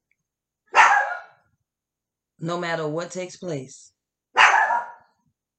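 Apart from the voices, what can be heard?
dog barking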